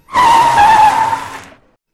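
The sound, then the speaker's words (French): A car's tires screech loudly in a sharp, high squeal for about a second and a half, then cut off suddenly as the vehicle skids to a halt. “La voiture s'est arrêtée brusquement et je me suis cogné la tête contre la tête”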